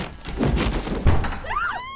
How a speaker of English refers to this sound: The door crashed open, slamming against the wall,